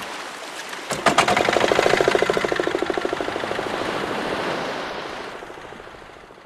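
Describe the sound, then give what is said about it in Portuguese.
A small boat's motor is started to head out to sea toward a reef about 6 kilometres off the beach: it sputters to life after a second of quiet, then settles into a steady, rapid chugging that slowly fades as the boat moves off, with faint water and wind noise beneath. “O Dido liga o motor e aí a gente senta no chão do barco para partir mar adentro.”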